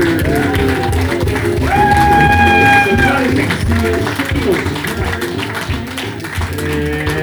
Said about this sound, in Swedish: Det här är Peter Wahlbeck. Applåder!